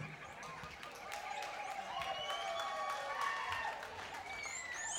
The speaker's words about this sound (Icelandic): gefið honum gott klapp